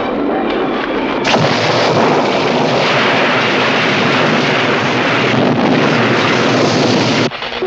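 A violent summer storm roars without a break: loud, dense rushing wind and rumbling that surges sharply after the first second and holds steady before briefly dropping near the end, with no voices.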